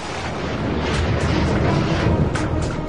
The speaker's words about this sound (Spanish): Los primeros 30 minutos del viaje transcurren sin problemas. Pero luego, el avión entra a una zona de tormenta eléctrica.